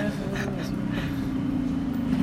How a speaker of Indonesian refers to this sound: sama motor lewat lagi